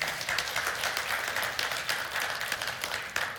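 An audience claps steadily throughout, a dense, sustained wash of many hands applauding at a fairly loud, even level with no voices over it.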